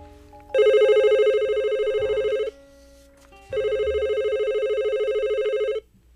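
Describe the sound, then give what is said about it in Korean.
An office telephone at the firm Gyeongheom Mulsan rings in two long electronic bursts, each about two seconds with a trilling warble, separated by a short pause. Loud, with no talking. “지금 사장님 계셔서 나 전화 받기 좀 그런데.”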